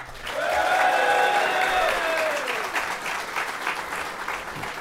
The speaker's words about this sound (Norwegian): Eh, gi han en ekstra applaus, da.